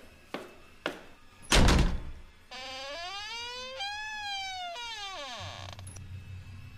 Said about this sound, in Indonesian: Akhirnya terdengar langkah kaki dari dalam rumah dan pintunya pun dibuka.